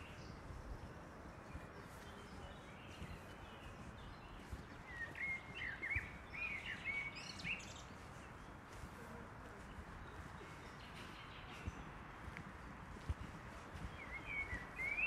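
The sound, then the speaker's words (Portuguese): Scattered bird chirps and tweets ring out in short bursts in a city park, set against a steady wash of outdoor ambient noise. “E aqui tem mais pássaros e mais felizes também.”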